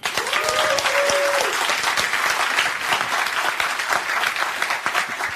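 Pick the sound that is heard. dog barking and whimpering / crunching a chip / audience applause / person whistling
audience applause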